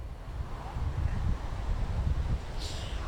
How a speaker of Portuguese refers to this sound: Pois é, o meu cabelo não está conseguindo disfarçar, tá ventando bastante aqui em Santos, nós estamos na ponta da praia.